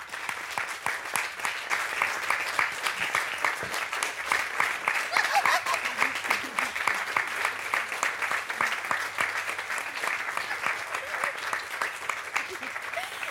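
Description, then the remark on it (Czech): An audience gives Simona Peková a big round of applause: steady, dense clapping of many hands at once, sustained at an even, fairly loud level for the whole stretch, with no one speaking. “Prosím, obrovský potlesk Simona Peková.”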